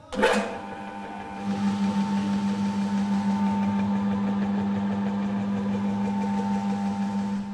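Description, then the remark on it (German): A rotary floor cleaning machine, its drive plate and cleaning pad turning at up to 2,500 revolutions, starts with a brief burst, then runs at a steady, droning motor hum with a constant mid-pitched whine, sustained without pause and with no voices. “Bis zu 2500 Umdrehungen von Treibteller und Reinigungspad entwickeln eine enorme Kraft.”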